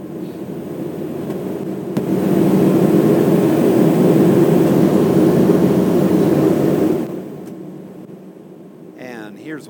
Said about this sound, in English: Oh, and by the way, here's what the plane sounds like with the recording levels at their normal environment.